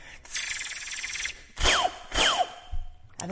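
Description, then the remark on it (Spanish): A voice imitates a laser with two quick, descending "pew" zaps, one after the other. A breathy, hissing sound comes before them, and there is no talking. “Cuando te truenan los huesos un pato, el sonido de un láser,”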